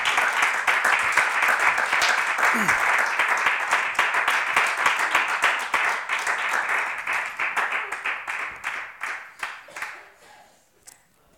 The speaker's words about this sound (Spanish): Hay un pueblo agradecido en esta tarde, hermano. Si usted está agradecido, hermano, déle un fuerte aplauso al Señor, hermano.